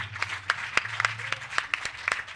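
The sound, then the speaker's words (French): A church audience acclaims Jesus, with many overlapping hand claps forming a steady, dense patter and sharper individual claps standing out, over a low background hum and faint murmur of voices. “Je veux que tu acclames plus fort que ton voisin, s'il te plaît.”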